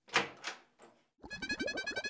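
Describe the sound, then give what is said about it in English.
A door is opened with two quick scraping, thudding sounds, then a short pause before a bright, buzzy tonal sound follows. No one speaks. “Let's see who's at the door.”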